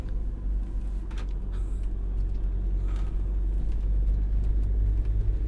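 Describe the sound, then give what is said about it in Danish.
A motorhome's engine rumbles steadily from inside the cab while driving in traffic into the city centre of Odense, a deep constant drone with road noise, plus a few faint clicks and rattles; no one speaks. “Ind med autocamper ind i midtbyen.”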